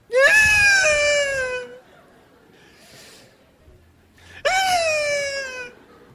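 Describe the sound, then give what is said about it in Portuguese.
A voice imitates a girl crying: two long, loud wailing cries with a tremulous, falling pitch, separated by a brief quiet pause. “Deixa chorar.”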